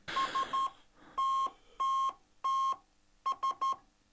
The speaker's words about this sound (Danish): Nu er vi jo kommunikations- og tele- og postmuseum, så selvfølgelig har vi en øh, telegraf stående mm. lige her ved siden af os. Simpelthen. Og øh, skal vi ikke lige prøve at høre, hvordan den lyder? Jo. Jeg prøver lige at... Så trykker man.